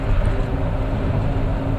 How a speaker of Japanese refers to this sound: 今日もですねちょっと車の中からの録音となっておりますえー、とまたねちょっと、えー、実家のお手伝いから、えー、自分の家にね戻っている途中です